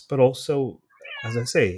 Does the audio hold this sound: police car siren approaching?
no